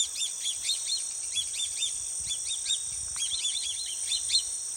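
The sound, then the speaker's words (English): Swallow-tailed kites give repeated thin, high whistling calls in quick clustered bursts over a steady background of insect trilling; no voices. “Swallow-tailed kites live in Central and South America year-round, but there's a subspecies that migrates to the U.S. in the summer.”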